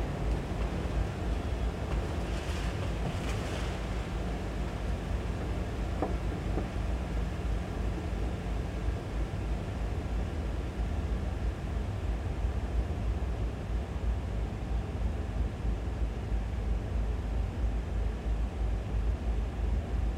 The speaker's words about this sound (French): le souffle de l'orgue, le son de la turbine électrique qui génère l'air nécessaire au fonctionnement de l'instrument.